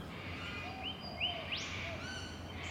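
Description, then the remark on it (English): Birds sing in a series of thin, whistled notes and quick rising chirps, fairly soft, over a steady low background hum. No one speaks. “Many of the birds can still be encountered in the margins and wild pockets of the city that are still capable of supporting them.”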